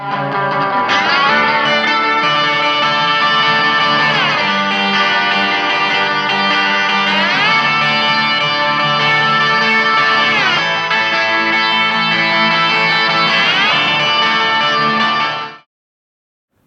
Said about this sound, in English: It creates almost a country western sound. It's also used in this kind of psychedelic rock. Take a listen to the guitar slide during the chorus.